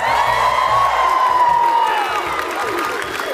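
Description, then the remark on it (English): A live studio audience at the University of Washington in Seattle applauds and cheers loudly and steadily during a live radio broadcast, with whoops and shouts rising over a dense wash of clapping for a few seconds. “and we are broadcasting live at the University of Washington in Seattle in front of a live studio audience, huh?”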